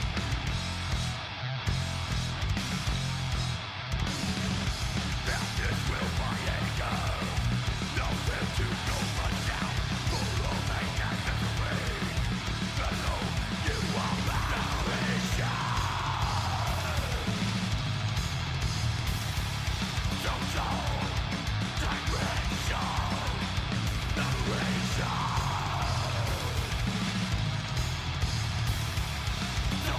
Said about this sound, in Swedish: Bra riff det här alltså. Perfekt produktion skulle jag säga, med tanke på vad det är de är ute efter.